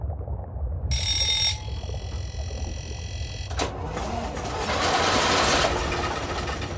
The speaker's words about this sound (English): It was the noise of the Gardner engine on the Australis.